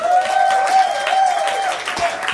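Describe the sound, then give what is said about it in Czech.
An evening crowd claps steadily in praise to God for a couple of seconds, a dense patter of many hands, with a sustained musical tone humming underneath throughout. “Takže pojďme taky zatleskat Bohu dneska večer.”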